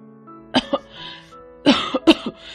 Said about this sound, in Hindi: दोपहर तक उसे जोर जोर से खांसी भी आने लगी खांसते खांसते ही उसने कहा